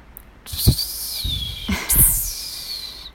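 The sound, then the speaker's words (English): A voice imitates a hawk's screech: two drawn-out, high, piercing cries, the second rising sharply before trailing off, fairly loud with a few soft thumps underneath. “as soon as I like was in the air, I heard a hawk in the distance, and it like screamed.”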